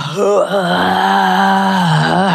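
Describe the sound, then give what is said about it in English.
A single voice lets out a loud, sustained guttural moan during burpees in a class, low and droning with a slight waver at the start, holding steady for a couple of seconds without any words. “And that's what we're doing in those burpees and those loud, guttural.”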